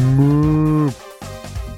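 A cow moos loudly and up close: one long, steady bellow, then a shorter, rougher low call after a brief pause, with no one talking.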